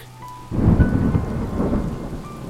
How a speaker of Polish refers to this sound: Klimatyczne odgłosy mrocznej i przerażającej burzy. Tym razem nie jest to tylko efekt dźwiękowy. Odgłosy burzy mają związek z omawianą sprawą.